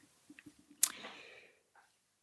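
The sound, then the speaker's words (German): A few soft low taps lead into one sharp, airy squish from a hand-pumped folding bellows on a hose, used to suck moisture or water out of a geocache container, with a short hissing tail that fades within about half a second. It is quiet, with no voices. “Das ist ein Schlauch und so einen Faltbalg, wo man kann von Hand pümpeln”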